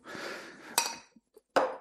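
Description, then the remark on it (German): Water pours steadily into a container in a kitchen for under a second, part of about one liter being added to a first batch, then stops, followed by two sharp clinks of glass or metal with a soft tap between them. No one speaks. “So, und ein Liter gebe ich jetzt hier schon mal zu der ersten Charge dazu.”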